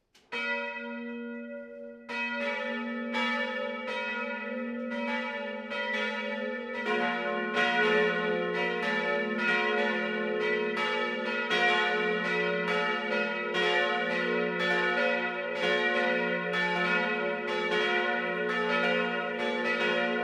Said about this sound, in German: Es ist 12 Uhr. Das Mittagsläuten kommt heute von der katholischen Pfarrkirche St. Johannes Evangelist im oberpfälzischen Diesenbach.